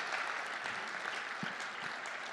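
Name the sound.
audience applause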